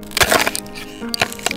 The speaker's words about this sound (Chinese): 巨人拔起旁边的树当成汤匙，开始吃起刨冰来。咔哧咔哧咔哧，巨人没说好吃还是不好吃。